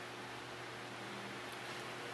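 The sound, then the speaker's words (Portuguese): A Mundial six-speed electric fan runs steadily, giving off a constant airy whoosh with a low motor hum underneath, fairly quiet, with no voices or other sounds. “Ventilador mundial. Seis velocidades.”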